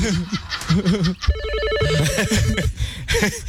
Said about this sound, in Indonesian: Alarm berbunyi keras. Wih. Siang itu di markas Power Ranger terjadi eh, kesibukan.